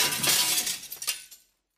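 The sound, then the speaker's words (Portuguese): A mirror shatters in one loud crash, followed by a brief spray of tinkling glass fragments that fade out after about a second and a half, with no voices. “Vocês conhecem alguém ou vocês mesmos já quebraram algum espelho na vida de vocês?”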